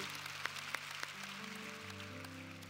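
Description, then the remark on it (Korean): An audience claps steadily in a dense wash of applause offered as glory to the Lord, with a few sharper claps standing out, while sustained organ-like tones hold underneath. “우리를 멸하시고 승리하신 그 주님께 우리 영광의 박수를 올려드리겠습니다.”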